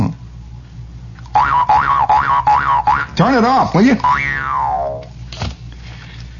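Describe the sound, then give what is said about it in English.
A wacky air-conditioning pump runs loudly, giving off a string of warbling, boinging tones that rise and fall in rapid succession before one long descending whine, with a man briefly speaking. “will you turn that pump off, Mario? For crying out loud, the air conditioning”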